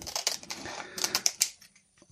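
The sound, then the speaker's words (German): Scissors snip through stiff rice paper, cutting it into strips, a quick run of crisp, clicking cuts with a faint crinkle, then quiet with one last small click. “Ob ich noch eine große Schere brauche. Denn dieses Reispapier bekommt man in verschiedenen Formen, entweder rund oder viereckig.”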